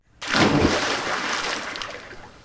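A heavy splash of a pirate's body thrown into the sea bursts in suddenly, then settles into a long churning, sloshing wash that slowly fades, heard alone without any voices.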